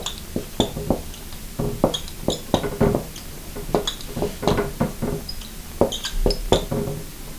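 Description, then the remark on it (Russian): Someone writes on a board over and over, four or five times, making quick irregular taps and short scratchy strokes in bursts, fairly crisp, with no talking. “сколько я написала тут? Четыре раза? Пять раз.”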